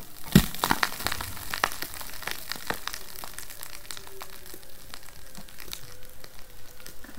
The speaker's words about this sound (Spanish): una placa se superpone a otra, provocando un silbido muy parecido al que produce un delfín. Por el otro, el hielo se acaba rompiendo